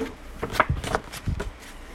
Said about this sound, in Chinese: 好，翻页。